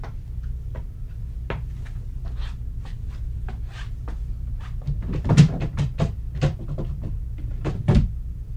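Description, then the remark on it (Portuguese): Wooden furniture sounds: the second drawer of a dark cabinet slides and knocks, followed by a string of small clicks, taps and rustling as a framed portrait is handled and lifted out, with a steady low hum underneath. “Aquele móvel escuro na segunda gaveta há um retrato emoldurado. Vá e apanho.”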